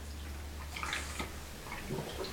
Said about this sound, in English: Let me grab a drink here, right quick.